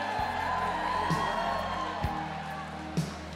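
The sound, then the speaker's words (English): A large crowd at an event in Chicago cheers and whoops continuously, a loud, dense wash of voices with a steady low hum beneath it and a few sharper bumps standing out from the roar. “A lot of buzz in this room. I like it. It's a great crowd.”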